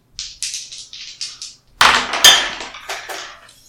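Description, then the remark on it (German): Two dice rattle briefly in a hand or cup with a quick run of light clicks, then clatter loudly onto a hard surface, bouncing and tapping a few times before settling on a pair of twos. No one speaks. “Also einfach nur beide Würfel einmal diesmal.”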